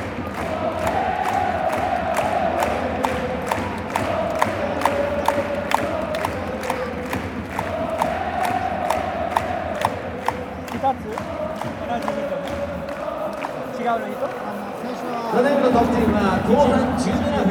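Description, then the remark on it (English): A large football stadium crowd roars and chants in celebration of a goal, with steady rhythmic claps punching through the din and a louder surge of cheering near the end. “Whoa, that's the second goal recorded, but only one of them counted, right?”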